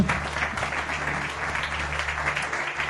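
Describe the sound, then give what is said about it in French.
An audience applauds two speakers for about three seconds, a dense wash of many hands clapping at an even loudness, with a low steady hum underneath and no voices. “On peut les applaudir.”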